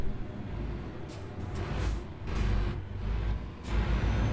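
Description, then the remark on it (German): A heavy truck engine rumbles steadily while the driver slows and pulls over to the right-hand side of the road, with several short airy hisses from the brakes breaking through the low drone. “Weil, oh, hier kann ich rechts ran.”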